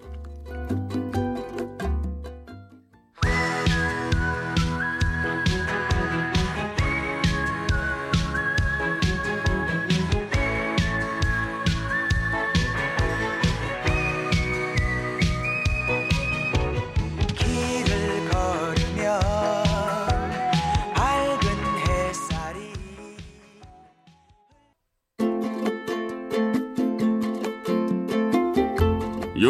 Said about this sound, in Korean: 일단 노래 한 곡 듣고 오겠습니다.